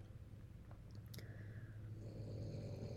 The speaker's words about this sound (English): can you hear my dog snoring? Because I can, and you might be able to hear it. He is sleeping next to me and he's snoring.